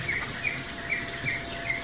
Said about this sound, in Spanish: Tiene jaulas con canarios.